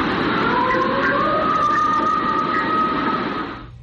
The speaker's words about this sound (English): So, just like always, there's a group of scientists and wildlife wildlife experts who have uh, heard the audio, and they've got to just rain on this lady's parade. They say it's probably a male coyote.